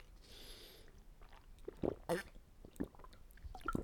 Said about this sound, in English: Excuse me, I'm drinking water.